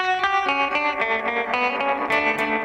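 A bass guitar with a shimmering chorus effect plays a steady run of plucked notes, bright and thick with a slightly distorted edge. It stays loud and up close with no voices.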